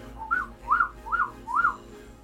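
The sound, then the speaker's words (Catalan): A person whistles four short rising-and-falling notes in an even rhythm, imitating a bird's song; the whistle is clear against a faint low background hum. “i així tres discos sencers d'ocells.”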